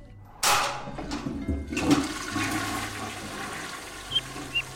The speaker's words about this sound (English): The sound of the flush unleashed a torrent of screams from the woman in the room as the water was sucked down the drain.